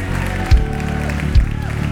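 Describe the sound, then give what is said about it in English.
An audience cheers and applauds after raising their hands to yield their lives to God, in a steady, dense wash of clapping and voices, with a couple of low thumps breaking through the noisy crowd sound. “Somebody should song, shout, cheer.”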